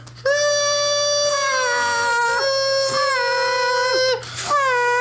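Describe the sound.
A voice imitates a toy horn with a loud, sustained nasal blare held steady for several seconds, dipping in pitch briefly twice before a final short honk.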